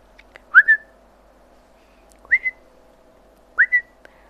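A person whistles to call a cat, three times, each a short two-note rising call, spaced about 1.5 seconds apart, clear, with quiet background in between.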